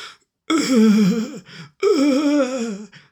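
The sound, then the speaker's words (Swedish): A person imitates the drawn-out groaning of a badly wounded man crawling toward a door, zombie-like, in two long, strained moans with a short breathy sound between them, fairly loud. “Typ bästa zombie-manér där.”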